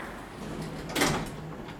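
The door of author Natalie Standiford's Upper West Side apartment opens with a short scraping burst of noise over a low, steady hum, the sound rising briefly and then settling back.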